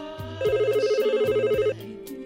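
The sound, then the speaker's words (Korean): A telephone rings with a rapid warbling trill lasting just over a second, loud, set against a steady background musical bed with no talking; the call is from a childhood friend. “중마고우의 전화를 받기 전까지는요.”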